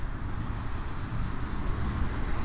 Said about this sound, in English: as another car goes by